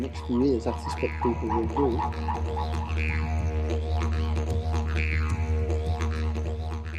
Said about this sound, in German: Die Suche nach dem perfekten Didgeridoo. Oder man hört sich es einfach nur an.